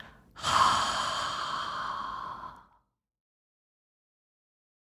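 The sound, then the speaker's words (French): A single strong, breathy exhalation pushed out through the mouth to expel air from the lungs during a guided breathing exercise, lasting about two seconds before fading, in an otherwise quiet setting. “Maintenant, lorsque vous serez prêt, expulsez l'air de vos poumons avec le son.”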